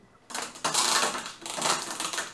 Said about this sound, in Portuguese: Vamos ver onde vai parar a roleta